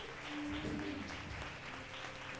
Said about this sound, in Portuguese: Glória a Deus. Vamos aplaudir a Deus.